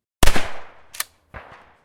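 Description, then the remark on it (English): Three sharp gunshots crack out one after another, the first and loudest followed by a long echoing decay, the later two quicker and fainter, each trailing off into a reverberant tail with no voices. “Weapon and explosion reverberations.”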